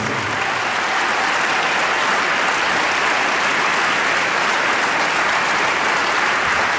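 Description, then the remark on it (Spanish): Sustained audience applause for a musician, a dense, steady wash of many hands clapping at a constant loud level for several seconds with no voices rising above it. “Fuerte aplauso para ….”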